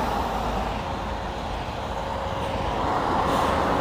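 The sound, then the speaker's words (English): A large city bus, the number 155 bound for Elephant and Castle, rumbles with a steady, loud engine drone and broad road noise on a noisy street, swelling slightly toward the end as it moves along. “Walking past the number 155 bus, which is going to eventually get to Elephant and Castle, which feels like a million miles away.”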